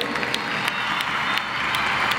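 A large crowd of children applauds loudly for Pope Francis, a dense, steady roar of clapping with scattered sharper claps standing out, no voices clearly audible.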